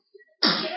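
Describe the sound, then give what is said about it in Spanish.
A single sharp sneeze bursts out loud, a brief quiet intake before it, then a broad explosive rush of breath that trails off quickly. “¡Salud!”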